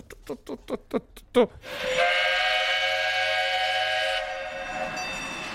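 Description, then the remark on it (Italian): A train sound effect played on a mixer: about six quick, rhythmic chugs, then a loud, sustained steam whistle that holds steady for a couple of seconds before fading into a softer, lingering tone. “Fermi, ragazzi, è partito il treno.”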